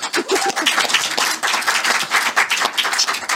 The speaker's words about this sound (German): bitte Applaus.